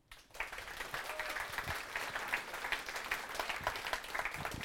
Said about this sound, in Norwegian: All da sier jeg takk for meg. Varm applaus til Håvard Kallestad.